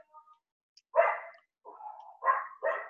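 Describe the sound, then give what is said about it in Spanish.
Several neighborhood dogs that know each other bark back and forth in short bursts, one bark, then a drawn-out yelping call, then two more barks in quick succession, moderately loud, with no talking. “Eh, son los perros del vecindario y eh, que se conocen y se escuchan y se responden.”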